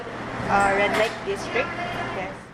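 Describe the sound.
Busy street noise at sunset in the Poblachon district, with rumbling engines and a few short horn tones cutting through, music mixing in, while indistinct voices murmur in the background.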